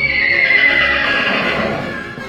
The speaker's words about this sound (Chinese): 突然，院子里传来一阵可怕的马叫声